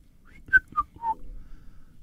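A short human whistle of three quick notes stepping downward in pitch, the last one slightly longer, close by and clear, with no talking around it.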